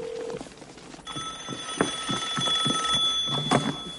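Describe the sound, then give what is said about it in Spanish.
A telephone bell in a house kitchen starts ringing about a second in, a rapid, continuous metallic trill with bright sustained overtones. It is steady, with no voices. “Oye el timbre del teléfono, salta del tractor, corre hacia la casa, entra en la cocina y contesta.”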